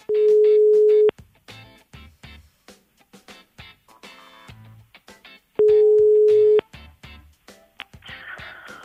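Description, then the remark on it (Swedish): A telephone ringback tone sounds twice as the Mix Megapol radio morning show calls a listener, each a steady, loud one-second beep about five seconds apart, with quieter background music and clatter filling the gaps between rings. “Då ringer jag upp”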